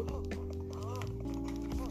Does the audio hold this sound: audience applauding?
no